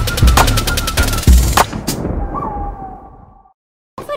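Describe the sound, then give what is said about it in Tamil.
A rapid, loud string of small firecrackers pops in quick succession, with a few heavier bangs among them, then trails off into a crackling, whistling tail before a brief silence. “பொடி பட்டாசு வெடி”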